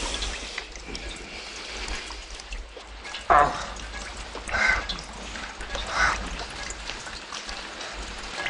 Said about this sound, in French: Avec cette pluie, j'aurais préféré rester au lit.